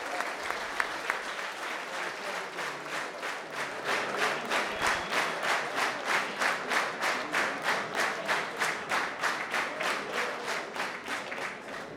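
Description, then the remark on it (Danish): A large audience at a 1 May rally in Næstved, Denmark, applauds loudly to welcome Magnus Højninge of the Social Democrats, the scattered clapping soon settling into steady, rhythmic clapping in unison that keeps a brisk even beat to the end, with no voices audible. “Tusind tak Tusind tak for den velkomst.”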